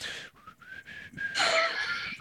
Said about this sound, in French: mais je vais y penser en sifflant.